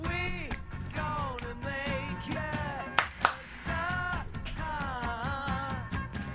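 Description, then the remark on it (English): A pop song's chorus with layered singing over a full band, punctuated by sharp hand claps, including two prominent claps near the middle, all at a steady, lively tempo. “So you get that kind of there's your chorus really, but then you get a secondary chorus with some hand claps.”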